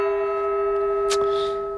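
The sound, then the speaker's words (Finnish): A bell or gong is struck to end a debate, ringing out with a steady, sustained metallic tone and shimmering overtones that hold for a couple of seconds, with a brief clatter partway through. “Kello, kello ah. soi, kongi kumahtaa, pikkusen kipua jääkööt viimeisiksi sanoiksi tuossa väittelyssä.”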